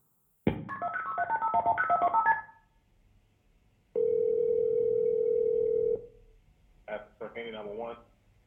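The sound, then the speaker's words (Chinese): A quick series of keypad beeps as a husband dials the 911 police emergency number to report his wife missing, followed by a pause and one long, steady ringing tone. A brief burst of voice comes in at the end. “然后他就拨打了九幺幺的报警电话。”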